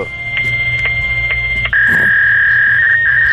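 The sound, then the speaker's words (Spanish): Electronic fax machine tones: a few short, evenly spaced beeps, then one sustained steady tone, loud over a constant low hum and some static. “Es un fast, un fast. Es un fast, tío, un ruti.”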